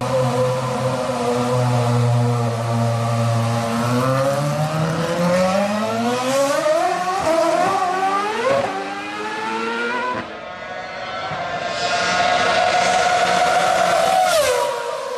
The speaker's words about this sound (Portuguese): Qualquer piloto mesmo que tenha mudado o seu destino sonha com a Fórmula 1 e tá aí o Daniel Serra e agora a gente vai deixar você com ele em alto e bom som, guiando um carro da Ferrari.